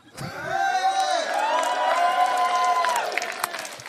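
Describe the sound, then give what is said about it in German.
A lively live crowd cheers and whoops loudly as a person prepares to eat a cricket, with sustained shouted voices and scattered clapping running through the whole few seconds. “Klatscht nicht zu früh, ich habe die Grille noch nicht versucht.”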